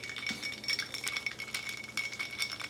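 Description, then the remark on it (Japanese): Ice cubes clink against the inside of a glass in a loose, irregular series of light taps. The glass rings faintly after each tap, with no talking. “ザンパーの氷の音”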